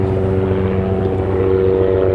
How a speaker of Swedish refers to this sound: Eh, kommer det helikopter igen? Är det samma helikopter? Ja, det är nog samma helikopter.